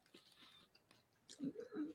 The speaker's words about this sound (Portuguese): E aí aqui vai rolar um ASMR porque eu tô comendo do lado do microfone.